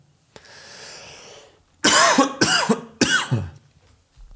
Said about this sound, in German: den Huster natürlich am besten rausschneiden.